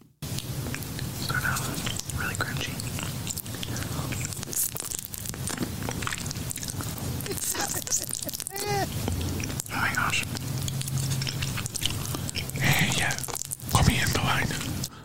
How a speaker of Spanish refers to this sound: Está chupando una paleta.